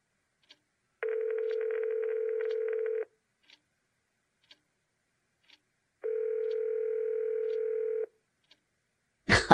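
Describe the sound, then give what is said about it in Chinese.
A mobile phone's ringing tone as a call is placed to a number: two long, steady, buzzy tones of about two seconds each, separated by a pause with faint ticks, then an abrupt noisy burst at the end. No talking. “他一手揽住我的腰，一手拿出手机，找到一个号码打了出去。”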